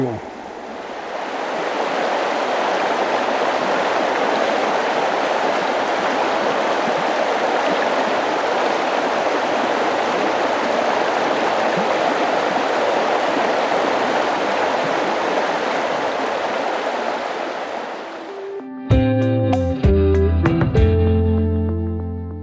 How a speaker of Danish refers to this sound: Det har været fornøjelse at være rundt i det her dejlige vejr. Også at besøge både udspringen og nu, hvor vi står ved den store flod der er på vej ud mod Randers